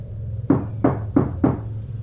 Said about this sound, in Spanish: Pero cuando me había alejado de la puerta volvieron a tocar, esta vez de forma más insistente. Me asomé por el ojal, pero de nueva cuenta no había nadie allá afuera.